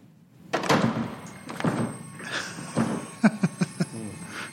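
Heavy, booming thuds against a door, spaced a second or so apart, then a rapid burst of four or five sharper knocks near the end, loud and close with no talking.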